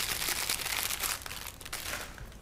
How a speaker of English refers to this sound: That's Joey Diaz is crumpling in the background, ladies and gentlemen.